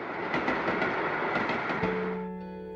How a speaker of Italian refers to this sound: Però l'altra volta c'erano più vagoni. Eh insomma, il treno è sempre il treno, eh. Dovrebbero farlo passare più spesso. Eh no, dopo ci si abitua e non ci si diverte più. È sempre bello il treno. Eh sì, il treno è bello.